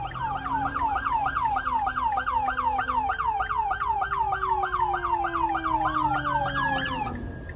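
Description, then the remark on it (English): A fire truck siren wails in a fast, steady yelp, rising and falling about three times a second, loud throughout, while a lower tone slides downward as the truck passes by, with a couple more cars coming in along with the fire truck. “There's a couple of more cars coming in the fire truck, so there must have been an accident.”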